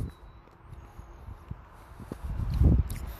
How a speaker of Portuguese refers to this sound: Uma balinha aqui. Desculpa pelo barulho.